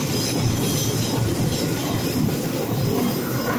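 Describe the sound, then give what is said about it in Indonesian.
A PT KAI train in Indonesia rumbles past, a steady, loud roar of wheels and carriages on the rails with a faint metallic squeal riding on top, filling the whole moment without pause. “Ada kereta lewat, Bos.”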